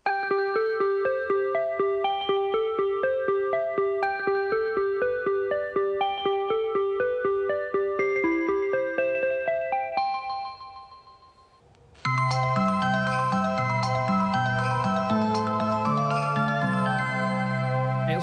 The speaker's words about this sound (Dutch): die gewoon voor, voor metrostation 1 een midi-jingle heeft gemaakt van 10 seconden. En die hoor je dan als je op het station staat... maar ook als je aankomt met die metro. Wat goed zeg. En dat klinkt zo. Dat is echt fantastisch.